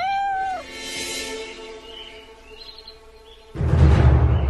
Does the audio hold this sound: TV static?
no